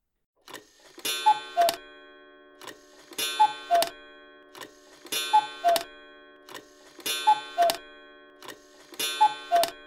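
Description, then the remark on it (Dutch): A cuckoo clock strikes six o'clock, calling at a steady pace, each call a two-note descending 'cuckoo' accompanied by sharp mechanical clicks and a bellows-like rush, with short pauses between. “Zes uur was het toen de koekoek van de koekoeksklok zesmaal uit het huisje kwam roepen.”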